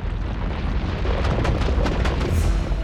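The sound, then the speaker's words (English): A loud, continuous thunderous rumble, like a huge boar charging down a mountain, with deep low-end roar and several sharp crashing bursts across a few seconds; no voices. “He had expected the boar to be big, but this sounded more like a storm than an animal, a great force barreling down the mountain towards him.”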